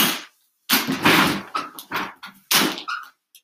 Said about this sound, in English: There, the cell door should be unlocked.